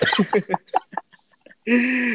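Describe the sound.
A person imitates a chicken, making a quick run of clucking sounds that taper off, then ends with a loud, drawn-out squawk. Clear, with no other talk.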